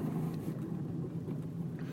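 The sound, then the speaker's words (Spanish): A car engine rumbles steadily on a street in Alicante, Spain, on a cool 14-degree morning, a low, continuous drone that holds even in loudness for the whole moment, with no voices over it. “aquí la gente sale con el coche y ni mira.”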